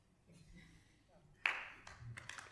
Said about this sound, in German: Genau, immer klatschen. Dürfen Sie ruhig.